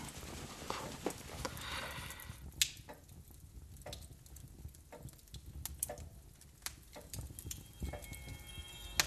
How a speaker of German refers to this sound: Ich hab nichts gehört. Bloß de Glock tickt.